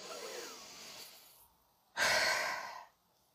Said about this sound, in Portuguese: mas se você focar os próximos dias em respirar, respira, respira direito, respira com o peito completo, assim, ó.